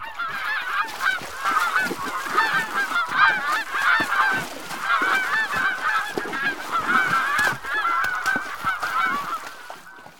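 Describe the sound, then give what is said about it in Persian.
A flock of geese honks continuously, with many overlapping nasal, mid-pitched calls forming a steady, noisy chorus that persists for the full length without pause. “ببین آدی حیوانکی قاضا چه جوری گریه میکنه؟”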